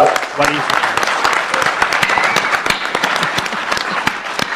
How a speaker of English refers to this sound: Come on, guys. You must, they deserve a really big applause because the creative thing about Lucha Underground has made this product